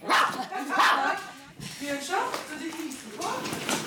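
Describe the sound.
The dog Bjørnson barks excitedly while jumping eagerly around in an apartment, two quick loud barks followed by softer yips and whiny noises, while someone talks.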